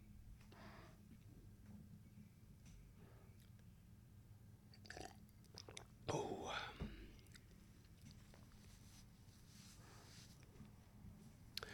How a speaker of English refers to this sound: Quick sip of water, boss. Don't mind me, boss.